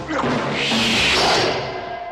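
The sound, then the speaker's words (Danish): Beams from Ken Adam's set decoration for the Fort Knox scene are dropped onto the film set floor, recorded on set. A long, loud reverberant boom follows, slowly fading over a couple of seconds. “Ja det kom jo også af, at, at Norman Wanstall var på sættet en dag, og så hørte han, at der var nogen, der tabte noget på gulvet, som også er de der trammer, altså af Ken Adams dekoration.”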